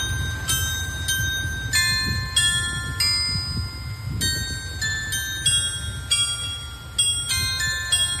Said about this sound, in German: Das ist das Glockenspiel am Ringerbrunnen. Das war ganz lange Jahre kaputt jetzt so. Ich glaube seit 2019, weil die Wartung eben sehr aufwendig ist und vor allem sehr, sehr teuer. Aber zum Glück geht's jetzt wieder.